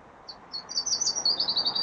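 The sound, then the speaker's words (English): Birds chirp clearly in a quick run of high, bright tweets that grow busier and denser, fairly loud over a faint background hiss, heard in the background of a phone call, with no talking. “It's funny the birds are so clear, isn't it?”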